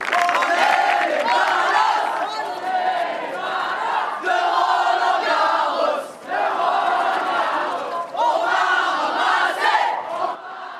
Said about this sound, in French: Pour les spectateurs qui viennent régulièrement à Roland Garros, ils l'ont probablement vu, il y a une musique mhm. et une, euh, une, sorte de rythme chaque matin avec la musique des ballos. On va juste écouter un extrait.